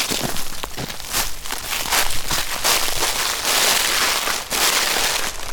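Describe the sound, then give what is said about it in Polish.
Footsteps crunch through dry leaves in a steady walking rhythm, each step a loud, bright rustling crackle that blends into continuous scratchy noise, with no talking. “Możemy teraz w liście wejść. O, wchodzimy w liście, uwaga.”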